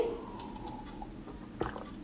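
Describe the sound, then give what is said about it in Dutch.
A quiet sip of water with soft wet mouth noises and a brief swallow, set against low background hiss with no talking. “Nou, ik pak even een slokje water en dan ga ik dan in naar, of over naar valkuil 2.”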